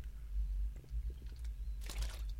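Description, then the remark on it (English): A quiet sip of a forest fruits flavoured drink in a studio: a few faint wet clicks, then one brief airy slurp near the end over a low steady hum. No one speaks. “Usually, what I do, I get whoever's in the studio with me to talk so that I can have a wee sip of drink.”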